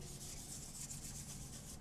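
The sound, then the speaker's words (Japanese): Steady sponge scrubbing of a washbasin with quick back-and-forth strokes, about four per second, over the low mechanical hum of a washing machine in the background. “スポンジで。”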